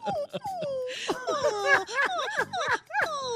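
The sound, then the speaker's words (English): A puppy squeals in a rapid run of high, wavering yelps and whines, fairly loud, with barely a pause between cries for a few seconds. “Is that a puppy squeal?”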